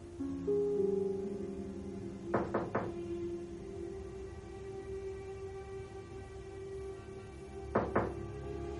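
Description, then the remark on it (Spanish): Knocking on Peter's bedroom door by his Aunt May: a quick burst of three knocks, then after a pause a second pair of knocks, over a steady low hum with no voices. “Más tarde está en su habitación, sentado en el suelo contra la ventana, inmóvil y con la mirada perdida, cuando llaman a la puerta.”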